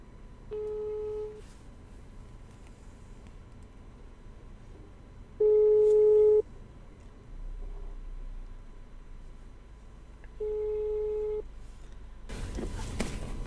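A telephone ringback tone plays three times, each a steady one-second beep separated by several seconds of quiet line hiss, followed by a sudden burst of noise as the call connects. It is an outgoing call to an HR worker at a large Indonesian cosmetics company.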